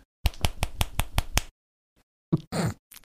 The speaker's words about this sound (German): wir haben das immer Schnisseln genannt. Also nicht schnippen, es nicht ist schnippen, klatschen mit den Fingern. Es ist oder? klatschen mit Zeigefinger auf Mittelfinger. Und das hört sich so an.